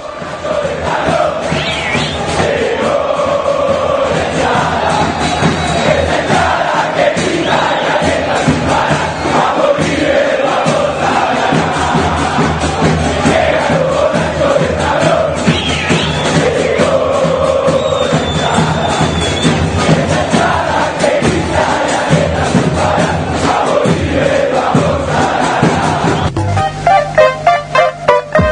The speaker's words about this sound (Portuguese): Então a gente vai ouvir aí o, o grito de guerra né, do, dos borrachos. Vamos nessa! Borrachos de Talon, a torcida do River Plate.